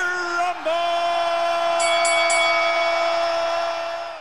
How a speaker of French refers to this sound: la cloche de la boxe qui nous alertait du coup pour, pour le début de la baston entre les films